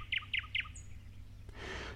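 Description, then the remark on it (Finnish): A thrush nightingale sings a quick series of three bright, rich notes followed by a thin whistle, then a brief noisy rasp, against faint background hum. “Viikon luontoääni: Satakieli”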